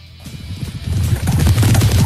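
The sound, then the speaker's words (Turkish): A loud hoofed-animal sound effect: rapid, rhythmic hoof clatter that builds in intensity over about two seconds, dense, with no voices. “O da bir toynaklı olduğu için sonuç olarak kabul edilebilir.”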